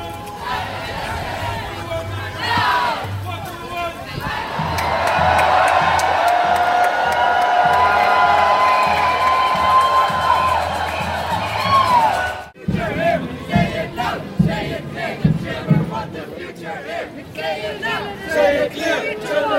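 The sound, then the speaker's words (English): A climate march crowd in the Netherlands, out in the rain and cold, cheers and chants in a loud, sustained roar of many voices, then cuts abruptly to scattered shouts and chatter with uneven bursts of noise. “Everybody had their own reasons for being there, but despite the rain and the cold, they had one thing in common: they stood up against climate change.”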